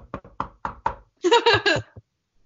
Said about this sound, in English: Knock on wood if you're with me.